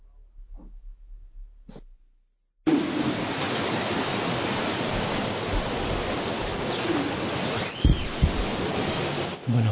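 An outdoor soundscape composition, Beneath the Forest Floor by Canadian composer Hildegard Westerkan, built from field recordings made in the forests of British Columbia: a few sparse low thuds and clicks, then an abrupt cut to a dense, steady rushing wash like running water, with faint calls threaded through.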